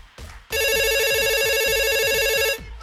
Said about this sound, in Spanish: Ahí tenemos un llamado, me parece.